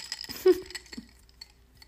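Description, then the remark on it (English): Glasses clink together in a toast, a bright chime with a short ringing tail, followed by a few lighter taps and knocks. No one is speaking. “Go us. Cheers. Clink.”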